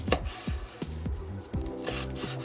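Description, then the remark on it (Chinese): A knife slicing a chili pepper diagonally at a 45-degree angle on a wooden board, for a seafood pancake: about five crisp, rasping cuts with dull knocks at an uneven pace, over a steady low tonal hum. No one speaks. “然后辣椒的部分呢，我会切斜的，就有点像是我们切那个香肠一样。”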